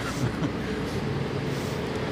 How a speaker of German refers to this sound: Wir müssen jetzt einmal kurz an der Seite gehen, weil die Müllabfuhr kommt. kommt genau.